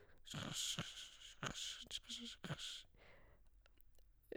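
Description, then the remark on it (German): Someone imitates an ultrasound scanner gliding over the skin of breasts with their mouth, making soft, breathy hissing swishes and small clicks, fairly quiet, over about four seconds. “Ja, das sollte jetzt der Scanner auf den Brüsten sein.”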